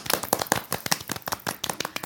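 A short burst of applause: several people clapping in quick, irregular rhythm, crisp sharp slaps sounding steadily for about two seconds with no talking.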